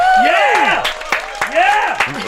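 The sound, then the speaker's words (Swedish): A short burst of applause for a comedian guest in a radio studio, the claps dense and lively, mixed with rising and falling whoops and cheers from a few voices throughout. “Kristoffer Appelqvist i Rix FM-studion. Applåder för honom.”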